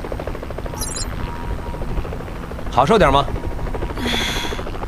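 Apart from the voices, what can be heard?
helicopter rotor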